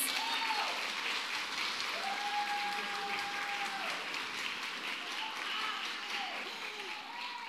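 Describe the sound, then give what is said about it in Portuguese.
An audience breaks into steady, dense applause for the media team, holding strong for several seconds, with a few cheering voices rising above the clapping before it begins to ease off slightly at the end. “Você pode dar uma salva de palmas para eles?”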